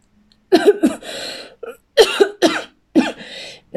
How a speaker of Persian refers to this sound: سرفه میگیرد پشت سر هم